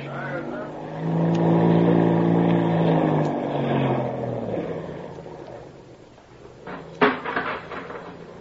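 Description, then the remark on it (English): A landing boat's heavy engine roars steadily at full speed for several seconds during the run up onto a beach, a deep harmonic drone that fades somewhat, followed by a few sharp clanking impacts near the end. “Sergeant, signal those other two boats to follow us and land alongside. Full speed ahead for the run up on the beach.”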